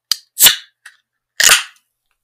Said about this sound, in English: Yes, I'm going to open it right now because you know the sound is the best part of you know opening the beer on the podcast, isn't it?